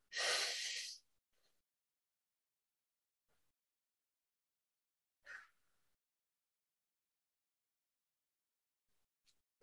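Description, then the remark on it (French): A strong breath opens a box breathing demonstration, exhaling for four seconds and holding for four seconds, then a long silence, then a second shorter breath about five seconds later, with faint traces of a third near the end. The slow, paused rhythm suggests deliberate breathing. “on expire pendant 4 secondes et on maintient encore pendant 4 secondes et on recommence”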